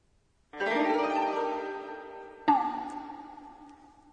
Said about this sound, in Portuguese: Agora, depois de crescer um pouco, este é o som de uma criança chorando. En, en.